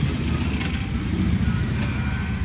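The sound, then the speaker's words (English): A pack of motorcycle club riders rumbling by, their engines producing a loud, steady, throaty drone that holds at an even level throughout, with no voices. “There go the Vipers. there they go. Dangerous Motorcycle Club.”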